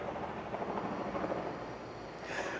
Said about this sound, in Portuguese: Será que o helicóptero meu vizinho de novo atrapalhando meu vídeo? Só pode, né?